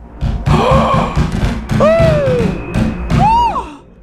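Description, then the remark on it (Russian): Loud, heavy pounding knocks from outside on a door, as if struck by three fists at once, in a rapid, uneven barrage, joined twice by high, wavering squeal-like cries of three voices in the room that rise and fall over the thudding. “Снаружи в дверь он грянул как будто сразу тремя кулаками.”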